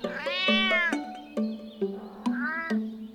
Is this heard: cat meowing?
yes